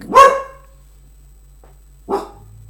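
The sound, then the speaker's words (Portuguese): The speaker's dog barks twice, a loud sharp bark followed by a slightly softer one about two seconds later, with quiet background hum in between. “Olha, meu cão.”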